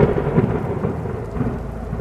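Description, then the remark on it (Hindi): Heavy rain pours steadily onto a train in a forest at night, with a deep, continuous rumble of thunder underneath, a dense, loud wash of sound with no voices present. “बारिश की आवाज इस अंधेरी रात को और भी खौफनाक कर रही थी”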